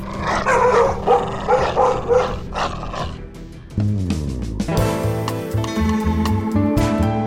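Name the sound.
dogs barking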